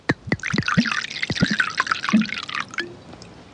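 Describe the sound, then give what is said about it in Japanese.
Japanese sake is poured in a radio studio in a steady gurgling stream, with bright splashing and glugging pulses for about three seconds before the flow tapers off. No one speaks. “今世界で人気が拡大しています日本酒がテーマです”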